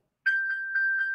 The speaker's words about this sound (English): Ah, that was my phone that got pinged.